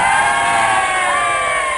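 crowd, audience applause and cheering

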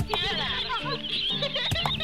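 bird, bird clucking

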